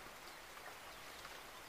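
Soft, steady rain falling with an even hiss and faint patter, quiet and unbroken throughout, with no voices.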